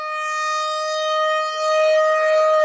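A civil defense siren blares alone in a steady, buzzy, sustained wail, loud, holding one pitch with only a brief dip midway, with no voices.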